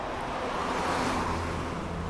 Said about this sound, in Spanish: No sé cómo se oirá este coche que ha pasado, yo lo he oído como un trueno.